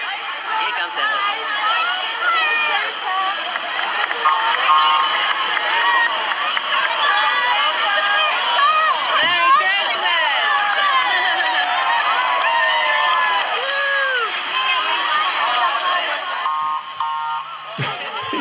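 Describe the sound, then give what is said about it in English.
A Christmas parade crowd fills the air with dense, overlapping voices, shouts and cheers, loud and steady for most of the stretch before briefly thinning near the end. “indeed, it sounds like they're calling a Christmas parade.”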